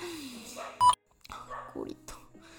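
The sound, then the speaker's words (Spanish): A dog lets out one short, sharp bark at night, loud against quieter background sounds, followed by scattered softer noises and brief murmuring voices. “empieza a ladrar por la vida y le vale gorro”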